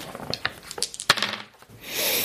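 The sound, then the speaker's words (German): A hundred-sided (d100) die clatters and tumbles across a hard tabletop in a quick series of sharp clicks, with one loud knock midway, then settles; a soft hiss follows. “Würfel mal mit dem W100.”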